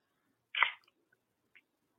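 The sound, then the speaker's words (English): A beer can cracks open with one sharp pop and a brief fizzing hiss, then a faint small click in otherwise quiet surroundings. “Uh, cracking a beer.”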